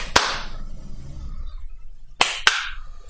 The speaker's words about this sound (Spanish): Se aplaude. Give me a second clap.